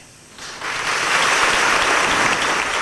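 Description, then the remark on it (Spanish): Applause from brotherhood members greeting auxiliary bishop Ramón Valdivia's announcement of the canonical coronation of Nuestra Señora del Rocío, at the blessing and reopening of the Templo de Santiago in Seville, swells in after a brief quieter moment, then holds steady as dense, sustained clapping without any voices standing out. “Así lo anunciaba en la bendición y reapertura del Templo de Santiago el obispo auxiliar Ramón Valdivia el 5 de julio, sábado, anunció que como escuchan fue saludado eh, por los hermanos con aplausos y con, y con cohetes.”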